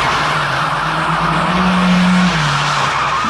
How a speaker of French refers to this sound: quand une leçon de conduite se transforme en course-poursuite dans le film Flic ou voyou